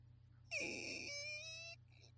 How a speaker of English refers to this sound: that was my scary door creak. I see. I see. It's very windy here, so I shut the door.